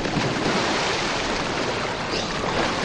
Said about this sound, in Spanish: Llegan junto al estanque del Parque del Retiro. El chico se lanza al agua y Chino salta tras él.